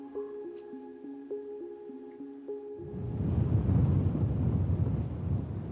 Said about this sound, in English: On the windy and weathered rocks of Oakland's northern shore, a woman stood on the precipice of a cliff. Below her, the waves crashed tirelessly against the rock, but the rock did not yield.